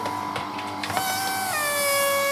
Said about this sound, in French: Alors pour ça, il y a différentes techniques. Le, le marteau à air comprimé,